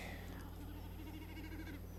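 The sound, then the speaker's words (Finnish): A common snipe drums with its tail feathers, a fast, quavering, bleating hum that swells and fades, heard faintly over a steady low background hum. “No tässä se taivaan vuohi mäkättääkin. Joo, tulee pyrstö tämä hieno ääni.”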